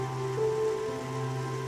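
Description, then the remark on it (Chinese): Steady rain falling outside a window as a soft, continuous hiss, mixed with low sustained musical tones that hold throughout at an even level; no one speaks. “我会把头抬得高高的，因为我想知道窗外的雨滴。是从哪一朵云里落下来？”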